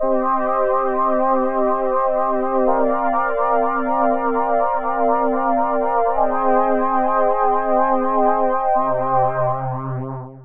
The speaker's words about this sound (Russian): Или вот такой пресет, который называется «Хоровой голос». Да, он же у нас полифонический, мы можем играть аккордами.